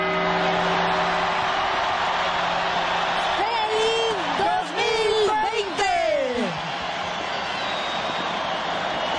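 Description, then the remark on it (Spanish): A dense crowd roars and cheers continuously, with rising whoops and shouted voices swelling in the middle before easing into a steady celebratory din, as people celebrate the arrival of the 2020 New Year at the Puerta del Sol in Madrid, Spain. “Abrazos, eh, besos, en fin, celebraciones, eh, las 12 campanadas, y así, en el año 2020 celebraban los españoles en Madrid la llegada de este nuevo año.”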